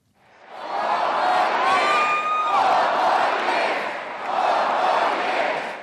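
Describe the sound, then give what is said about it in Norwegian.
A large crowd of Obama supporters roars and cheers at one of the president's mass campaign rallies in the United States, in a dense, sustained wash of voices, swelling in waves, with a few high whistles and shouts cutting through the noise. “Fire år til brøler Obama-tilhengerne på presidentens massemønstringer.”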